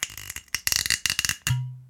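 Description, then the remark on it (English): A bottle of Talisker Storm scotch being opened: a quick run of crackly, ratcheting clicks as the cap twists and the seal breaks, ending in a short hollow, low-pitched pop that rings briefly. “That is me opening a lovely bottle of scotch, which is, I'm going to pour it into the glass now.”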